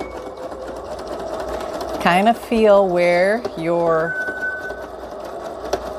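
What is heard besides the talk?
sewing machine stitching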